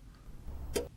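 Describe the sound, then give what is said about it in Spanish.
A single sharp click of a light switch being flipped on in a bedroom as the door is opened, short, standing out against a low, steady background rumble. “Abren la puerta y al encender la luz”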